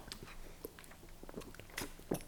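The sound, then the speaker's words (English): Sipping of water: a scatter of small wet mouth clicks and soft slurps, ending in a brief gulping swallow, with no talking. “Um, hold on, let me take a sip of water.”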